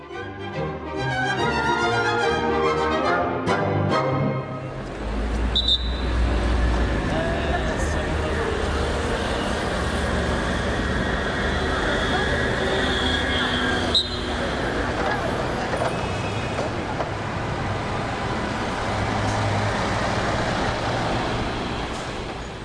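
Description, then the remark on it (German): Busy traffic on Via Nazionale rumbles steadily for the whole stretch as a column of cars pushes through: engines idling and crawling, a heavy vehicle's low drone, an occasional brake hiss, with a brief tonal passage at the start. “Durch die Via Nazionale schiebt sich die Autokolonne.”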